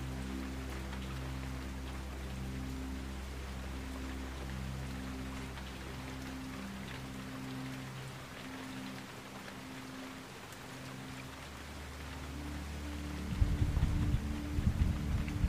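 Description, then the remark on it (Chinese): Steady rain patters densely on tent fabric in a continuous crackling hiss over a low, sustained rumble, growing a little louder and rougher toward the end. No one speaks. “你沉沉的闭上双眼，安静的聆听着雨水打在帐篷上的声音，以及时不时传来的阵阵雷声，还有树叶在风雨搅动下的沙沙声响。”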